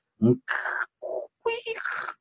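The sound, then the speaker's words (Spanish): A voice imitates the dialing tone a computer's dial-up modem made when connecting to the internet over a phone call, with a low grunt followed by several bursts of buzzy, screechy electronic-sounding noise, fairly loud, with brief gaps between them. “Porque empezaba a buscar y lo que hacía en ese momento y más reciente hacía un, tono como de marcado, porque en realidad lo que hacía el, el teléfono es hacer una llamada telefónica para conectar los datos.”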